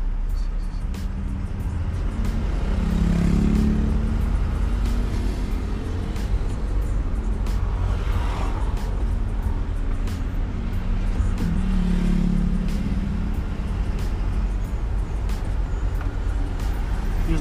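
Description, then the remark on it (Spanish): A heavy vehicle rolls past on a road, its loud, deep engine rumble droning steadily, with the growling motor note swelling twice over the traffic noise. “Pues Al ver pasar un coche pesado, veo que la agarran y anotan.”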